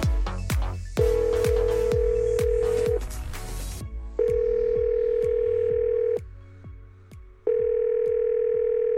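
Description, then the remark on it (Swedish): A steady telephone ringback tone sounds in three long beeps separated by short pauses, clear and fairly loud, with rhythmic music thumping underneath at the start, as a phone call is placed to a guest. “Men vi ringer en gäst. Vi ringer vår kändisgäst.”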